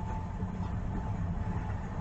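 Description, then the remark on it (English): A car engine idles steadily, a continuous low rumble with a faint whine on top, holding an even level throughout with no voices. “and I ain't going over because you start the car.”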